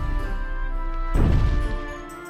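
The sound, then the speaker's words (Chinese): A sustained musical drone, then a deep, heavy booming thud, the footstep of a giant approaching inside a huge castle, rumbles in about halfway through and slowly fades, with no talking. “突然，巨大的脚步声传了过来”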